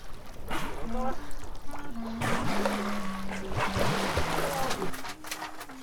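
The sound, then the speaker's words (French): Dolphins give off a steady run of squeaky whistles and chirps, some sliding up or down, heard over a rushing, bubbly wash of water. “Waouh tu les as entendus Ouais, ouais. Ils font des petits bruits aigus.”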